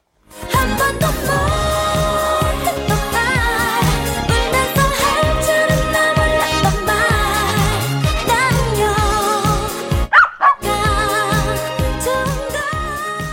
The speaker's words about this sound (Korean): 어, 귀여운 강아지 소리가 들렸어요. 어, 누가 저렇게 좋길래 짖는 걸까요?